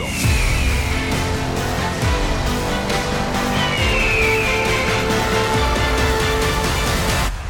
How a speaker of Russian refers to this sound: Так, тут отличное место для перебивки и перехода к э, следующей теме.